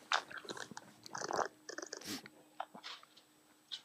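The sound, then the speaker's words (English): Someone drinking: a string of wet sips, gulps and small mouth clicks in an irregular rhythm, fairly quiet, with no talking. “I hear you drinking.”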